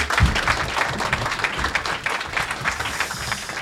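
An audience bursts into sustained applause, a dense, steady wash of many hands clapping at fairly even loudness for several seconds, with no voices standing out.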